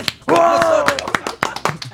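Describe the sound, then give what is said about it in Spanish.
A few people clap in a short, uneven burst of sharp hand claps in a studio, while a voice lets out a drawn-out cheer over the first half. “aplauso para”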